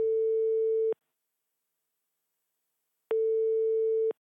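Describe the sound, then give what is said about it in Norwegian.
A telephone ringback tone heard while placing a call to the caller's mother's first boyfriend: two steady, clear one-second tones separated by a long silent pause, with no voices. “Jeg ringer den første kjæresten til mamma.”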